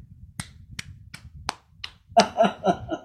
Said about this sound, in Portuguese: Deixa eu ver se vai sair aqui o, o áudio da minha palma. Deixa eu Deixa eu aplaudir essa sua escolha.